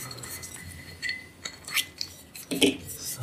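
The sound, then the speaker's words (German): A cork-sealed wine bottle is opened with a corkscrew during a wine tasting: scraping, twisting rasps and light glassy clinks come in a few short bursts, with no one talking. “Ja, dazu brauchen wir jetzt wieder einen Korkenzieher.”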